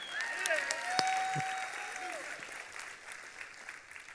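A church audience claps together in a dense, steady patter that holds for a few seconds and then gradually thins and softens toward the end.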